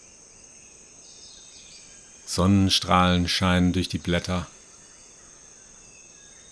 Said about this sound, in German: fühlen uns ganz leicht auf einmal und hören um uns herum exotische Vogelgeräusche und vielleicht sogar einen Affen oder sowas rufen.